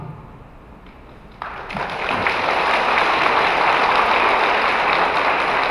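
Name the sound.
audience applause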